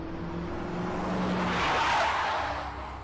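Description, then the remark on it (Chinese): A Porsche brakes hard at the roadside with tires screeching, a harsh hissing squeal that swells to a loud peak and then trails off, over a low engine drone, with no voices. “路边一声刺耳的急刹车的声音吸引住了众人的目光。”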